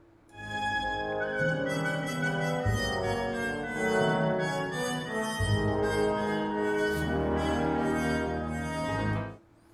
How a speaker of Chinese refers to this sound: 那这个小号声音呢，在之后会成为主角。那加了弱音器的小号，我们可以先来听一下啊，它吹奏旋律的声音是什么样的。